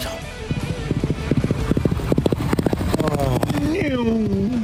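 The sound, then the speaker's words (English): The racehorse Amelia's Jewel galloping at Caulfield during a morning track workout, hooves in a fast, steady rhythm of loud thudding beats that build in pace, followed by a rising, voice-like tonal sound near the end. “That is Amelia's Jewel doing her thing at Caulfield the other morning”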